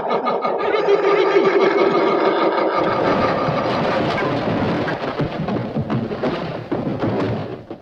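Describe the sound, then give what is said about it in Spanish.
A low, droning rumble gives way to loud, continuous crashing and grinding with scattered heavy thuds as a building shakes and falls apart, a large part of its roof collapsing. No voices. “El edificio empezó a temblar y a caerse a pedazos.”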